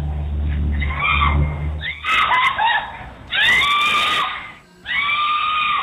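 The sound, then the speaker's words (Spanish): A mother in Houston screams desperately in several long, high-pitched, anguished bursts, loud, after her nine-year-old daughter is hit by a bullet fired from another vehicle, with short gaps between cries and a low rumbling hum underneath at the start. “Son los gritos desesperados de la mamá al verla batida por una bala que fue disparada desde otro vehículo.”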